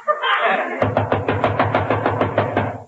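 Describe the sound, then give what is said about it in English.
A brief murmur of voices gives way to a steady, rapid run of about a dozen firm, loud knocks on a door, continuing to the end. “that's probably my lawyer. Let him in. Mr. Burns, before I open the door”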